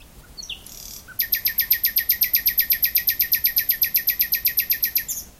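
A nightingale sings a loud, close trill: a brief softer phrase, then a fast, even run of about thirty sharp, repeated whistled notes lasting several seconds.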